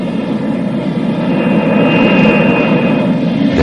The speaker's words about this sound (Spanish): Los aerodinámicos cazas de combate enfilan las pistas de despegue.